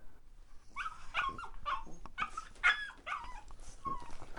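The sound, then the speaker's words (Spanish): A small brown, long-eared terrier puppy yaps and whimpers, a string of high, thin yips and whines across a few seconds, fairly quiet, with no one talking. “Una vez con mis propios ahorros me compré un cachorro de terrier, un perro hermoso, juguetón, chiquitito, marrón con las orejas largas.”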